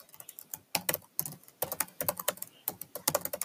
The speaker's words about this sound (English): I'm actually just typing gibberish into my um computer.